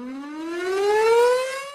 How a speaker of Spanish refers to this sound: Con el sonido de las sirenas, a las 3 de la tarde, los funcionarios, encabezados por la jefa de la Dirección General de Administración,